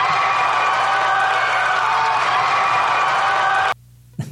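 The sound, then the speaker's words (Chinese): A loud, steady wash of audience applause mixed with crowd cheering runs for nearly four seconds, then cuts off abruptly into near silence before a brief burst returns at the very end. “谢谢，好，谢谢掌声鼓励啊！”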